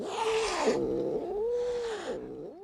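A cat meows twice in succession, each call a drawn-out, rising-then-falling wail with a raspy edge, loud with no talking around it.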